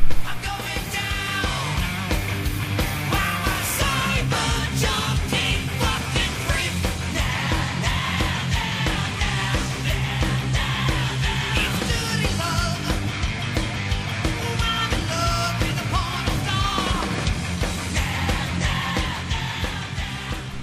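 A demo recording of a rock song plays loud and steady for about twenty seconds: dense distorted guitars, pounding drums and a raw, yelling lead vocal over a driving rhythm.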